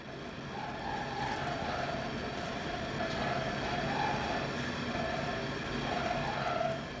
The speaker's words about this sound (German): bei Windenergieanlagen von dem Phänomen der Amplitudenmodulation, was da auftritt. Das heißt also eine Lautstärkenschwankung und das ist schon unangenehmer. Ne? Man empfindet es einfach als lauter, obwohl es objektiv gar nicht so laut ist.